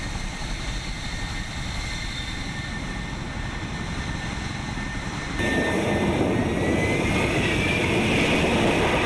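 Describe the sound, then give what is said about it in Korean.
A V-22 Osprey tiltrotor aircraft, a type operated by the United States, flies overhead with a steady, heavy roar of engines and rotors that suddenly grows louder and fuller partway through. No voices are heard. “이 오스프리라고 이제 이 미국이 운용하는 음.”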